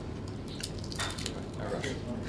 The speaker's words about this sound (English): Um, I have to have one of these. This is going to be really interesting because you'll be hearing me crunch as well now. But these mm. oyster sandwiches are delicious.